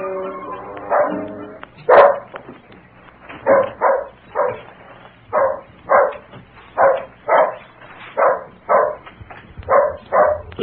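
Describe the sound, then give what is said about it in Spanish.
A dog barks repeatedly and steadily, as if at a stranger: about a dozen loud barks in a regular rhythm, with a faint low background hum and no talking. “No, no deben ser ellos porque el perro está ladrando como si fuera un desconocido.”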